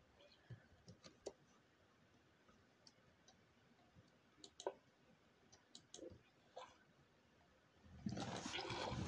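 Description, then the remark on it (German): Video game water being scooped with buckets: a string of quick, sharp splashy clicks at irregular intervals, ending in a loud, sustained rush of water. “Das ganze Wasser ist weg.”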